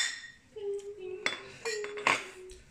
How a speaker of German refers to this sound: So, wir stoßen erstmal an. Prost. Prost. Genau.